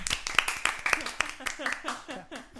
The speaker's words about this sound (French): Attendez, je vous propose qu'on repasse les applaudissements